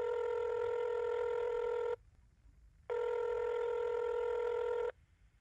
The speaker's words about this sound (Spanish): No supe en qué momento caí dormido, pero fue el ruido de mi celular el que me despertó.